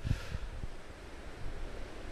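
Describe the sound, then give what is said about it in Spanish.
Ocean waves wash onto the shore in a steady, hissing roar, mixed with low wind buffeting against the microphone; no one is speaking. “Este día quise venir aquí al mar y estoy frente al mar grabando este episodio”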